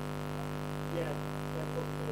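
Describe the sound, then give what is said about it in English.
A steady, droning electrical hum runs unbroken throughout, layered with a faint crackly static hiss on the phone line feeding a YouTube stream, and no one speaks. “There's a static to the to the to the phone to YouTube.”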